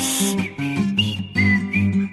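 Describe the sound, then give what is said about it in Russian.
Squeaky, whistling tones like a rubber hedgehog squeak toy come in a string of short bursts that rise and fall in pitch. They are fairly loud, with no talking. “Я думал, свист.”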